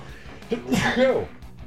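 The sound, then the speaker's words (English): A single loud sneeze bursts out sharply with a breathy intake and forceful release over a faint background, with no talking around it. “Bless me, couldn't hit the cough button in time.”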